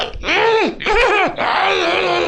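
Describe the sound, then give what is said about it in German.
A voice imitates a loud, shrieking cackle of someone laughing uncontrollably: two long, high, strained cries that sweep upward and then drop, followed by a sustained raspy screech, intense. “Er kreischt laut raus und erst nach ein paar Augenblicken erkennst du, dass er sich äh, zu Tode lacht.”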